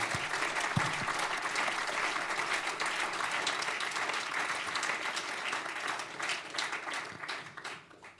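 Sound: warm audience applause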